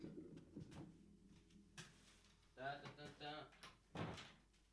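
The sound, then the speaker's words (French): A bedroom door is pulled shut: a low creak of movement followed by a solid thud, with muffled indistinct voice sounds and rustling around it. “Euh, attends juste, faut que je ferme la porte de ma chambre parce qu'il y a quelqu'un qui va rentrer là.”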